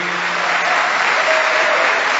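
Steady audience applause, a dense wash of many hands clapping at a constant loud level for a couple of seconds, with no voices rising above it.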